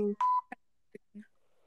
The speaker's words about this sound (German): Junge, was ist das für ein scheiß Piepen?